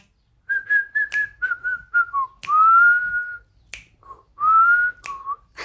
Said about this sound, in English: Okay, actually, snap and whistle maybe a song from the the record.